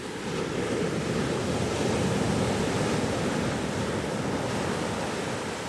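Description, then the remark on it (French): Ocean waves break steadily in rolling breakers on a sandy shore, a continuous wash of surf with a faint breeze mixed in, fairly loud throughout with no voices. “Les vagues déferlent en rouleaux.”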